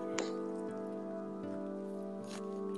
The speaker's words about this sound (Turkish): ses kaydını izleyen biri şey diyecek. Arkadan gelen ağız şapırdatma sesine falan. Ben açıklayayım.